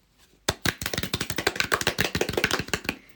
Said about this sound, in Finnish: Aplodit. Pitää taputtaa